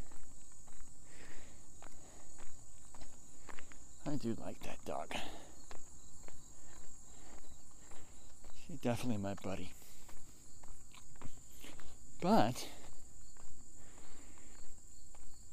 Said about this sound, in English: I am now walking up the big hill. Something I have not said on this podcast in quite a while. So here we go. Walking up the big hill,